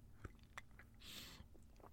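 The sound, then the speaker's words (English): A quiet slurp as someone sips tea, a brief airy hiss drawn in through the lips, preceded by a few small mouth and cup clicks. No one speaks. “I'm going to have a little slurp of tea.”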